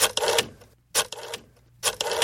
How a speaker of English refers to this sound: My ears are bleeding from that rotary phone sound effect.